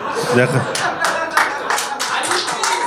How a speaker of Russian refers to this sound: Не надо хлопать, не надо. Не надо сейчас.